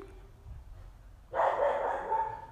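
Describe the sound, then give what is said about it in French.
After a quiet stretch, a dog suddenly lets out a loud, drawn-out bark that carries for about a second, with no one talking; the dog is worked up because rain is coming. “il y a de la pluie qui arrive, c'est en train de le rendre fou.”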